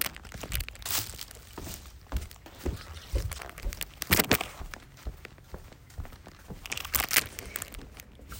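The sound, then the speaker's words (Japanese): Soft, dry footsteps pad and shuffle across woven straw tatami mats, an uneven string of rustling steps with a faint crinkly texture and no voices. “畳を歩く音”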